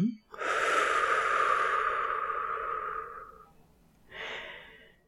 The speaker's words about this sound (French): Observez le simple mouvement naturel de votre souffle. Inspiration. Expiration.